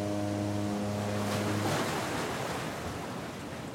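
Steady wash of sea waves and wind, with a low engine drone humming under the surf for the first couple of seconds before fading into broad, rushing water noise, on a ferry crossing to Belgium.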